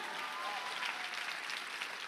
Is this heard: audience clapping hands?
yes